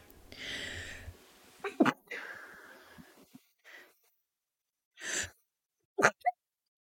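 A breathy, building inhale gives way to a sharp sneeze-like burst, then a pause and a few shorter explosive huffs and snorts.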